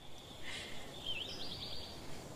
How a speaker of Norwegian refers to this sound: Selv om det er fuglesang i bakgrunnen.